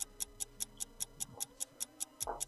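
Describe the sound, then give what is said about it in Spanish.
A countdown timer on a quiz show ticks steadily while a contestant answers, about a dozen crisp, evenly spaced clicks at a quick pace, heard on its own with no voices. “Tic-tac, tic-tac, tic-tac.”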